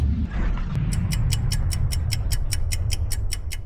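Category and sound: household object, watch ticking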